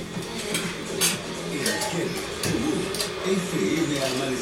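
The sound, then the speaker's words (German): Kitchen sounds of a 56-year-old woman making coffee in her house: dishes and cups clink a few times at irregular intervals over a steady background with a low, muffled voice murmuring underneath. “Sie steht in ihrer Küche, kocht Kaffee und erinnert sich an ihre enge Freundin”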